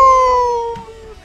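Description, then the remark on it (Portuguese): Several people join in a mock wolf howl after a count of three, a loud, sustained tone that slides slowly downward and fades out after about a second, with no talking over it. “Vou contar até três e vamos todo mundo uivar, hein?”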